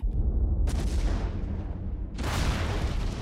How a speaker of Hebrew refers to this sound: לילה אחד שמענו בחוץ קולות נפץ ורעשים.